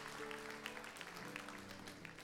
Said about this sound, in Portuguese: É, aplauda, aplauda Jesus, para ela ficar feliz comigo. Tá? Isso.